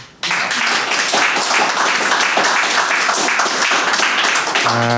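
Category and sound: crowd, applause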